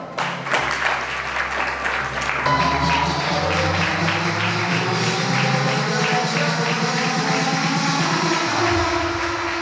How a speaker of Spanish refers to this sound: Ahora llega el acto más esperado por todas las chicas y chicos, que se el desfile El Bañador. ¡Un fuerte aplauso!